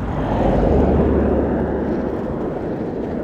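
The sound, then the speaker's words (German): A loud, steady rumble of a vehicle going by, swelling briefly near the start and then slowly easing off. The broad engine and road noise fills the whole clip with no voices. “Sage ich nach dem Auto.”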